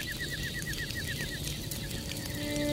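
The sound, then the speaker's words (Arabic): A huge eagle's wings flap in a steady, rapid series of beats as it suddenly appears, with a faint bird call, against a constant busy background hum. No one speaks. “وفجأة ظهر أمامه نسر ضخم أفزعه منظره وأفزعه أكثر من ذلك قدرته على الكلام”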